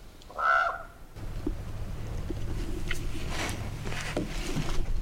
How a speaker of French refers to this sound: C'était un corbeau. Qui vient de se poser juste en face sur le réverbère. complètement dingue le chant de ce corbeau.